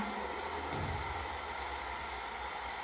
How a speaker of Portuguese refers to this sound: o barulho, os trovões. Você vai vivenciando essa experiência, apenas se permitindo ficar aí e contemplando a chuva